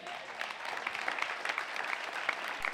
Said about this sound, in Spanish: Yo sé que Dios le ha bendecido con muchas palabras y de verdad yo creo que sus pastores merecen un aplauso.